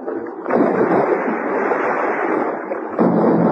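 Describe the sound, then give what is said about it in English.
An old-fashioned cannon, a heavy weapon, fires with a loud, roaring blast, followed by a sustained rumbling roar and a second sharp burst near the end, with no talking. “I thought I heard the roar of a heavy weapon, like an old-fashioned cannon.”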